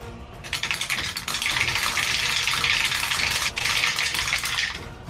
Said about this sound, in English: the rain stick over there.